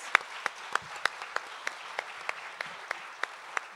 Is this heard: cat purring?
no